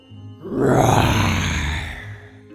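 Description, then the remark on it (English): A person playing a lion, the king of the jungle, in a children's guessing game imitates a lion's roar: one loud, rough, sustained growl lasting over a second, swelling quickly and then slowly fading, with no talking. “Please stop that scary roar.”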